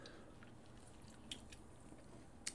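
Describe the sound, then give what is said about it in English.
Quiet drinking of water: soft wet mouth sounds and swallowing, with a couple of small sharp clicks near the middle and end, and no talking. “I needed more water than I thought.”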